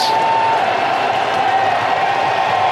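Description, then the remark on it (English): A large baseball stadium crowd cheers and applauds in a steady, continuous roar, loud and dense throughout, with a faint sustained tone riding above the noise, coaxing a player out for a curtain call. “They just keep on cheering.”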